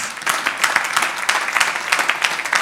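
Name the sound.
clapping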